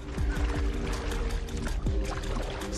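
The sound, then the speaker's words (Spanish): Water sloshes and gurgles around a kayak on deep water as it is held in place, with repeated hollow knocks and splashes, continuous and fairly loud, with no voices. “Lo que intento es quedarme aquí en el kayak para mantenerlo en su sitio mientras esperamos que la presión se forme en la botella de dos litros totalmente cargada,”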